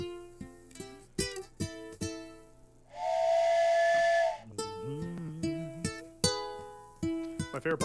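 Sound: steam train whistle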